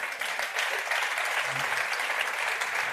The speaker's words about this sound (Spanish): Podéis aplaudir si queréis, ¿eh?